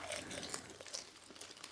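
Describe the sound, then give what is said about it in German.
A plastic popcorn bag being opened crinkles and crackles continuously, a dense, busy rustle of handling with no talking over it. “Kilogramm äh, Popcorn-Tüte. Was ist das eigentlich für billiges Zeug?”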